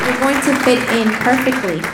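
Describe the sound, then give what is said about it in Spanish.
An audience applauds the Lord with steady, dense clapping over two seconds, mixed with voices calling and cheering loudly throughout. “Dale ese fuerte aplauso al Señor.”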